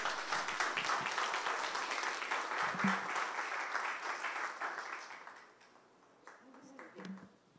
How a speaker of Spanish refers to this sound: Entonces, démosle un aplauso a nuestro Dios.